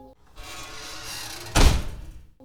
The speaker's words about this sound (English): And then suddenly, the front door swings open